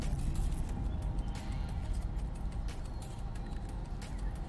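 Steady low rumble of a car cabin on the drive home, a constant droning road and engine hum with faint shifting noise and no voices.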